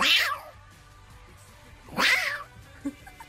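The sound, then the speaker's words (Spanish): A person imitates a cat, giving two drawn-out, wailing meows about two seconds apart, loud, with a faint short sound after the second. “¿No sabías que hacía como gato?”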